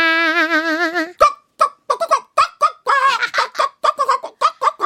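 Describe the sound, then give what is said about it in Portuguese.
Voices imitate a chicken on command in the children's game Boca de forno: one long, wavering squawk, then a rapid, uneven string of short, loud clucks and bawks with no ordinary talk. “Seu rei mandou dizer que todo mundo imitasse uma galinha!”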